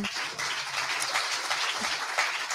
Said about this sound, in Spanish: Dejamos hueco para el aplauso.